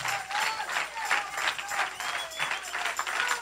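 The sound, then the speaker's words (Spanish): An audience claps together, a dense, steady wash of many hands with a loose rhythmic pulse. The clapping is fairly loud and continues throughout, with no voices standing out. “Vamos, a ver, todos aplauda sus manitas ahí, aplauda los tamborcitos que trae.”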